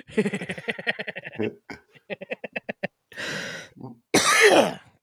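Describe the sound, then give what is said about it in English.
Loud coughing and throat clearing: a run of choppy, rhythmic voiced bursts, then short hacks, followed by two harsh, raspy coughs near the end, with no speech. “I gotta hit my cough button more. I apologize.”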